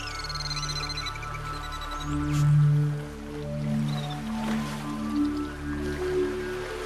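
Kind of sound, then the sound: animal, dolphin vocalizations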